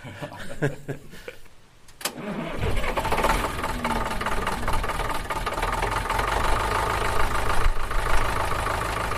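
An old 1954 Farmall tractor engine starts up after a brief quiet moment and then runs steadily, a loud rumbling idle with a rough knocking chug continuing to the end.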